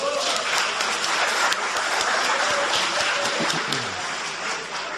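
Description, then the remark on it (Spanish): An audience applauds a man steadily for several seconds, a dense wash of many hands clapping at an even, sustained loudness that eases off slightly at the end. “Un aplauso para él, por favor.”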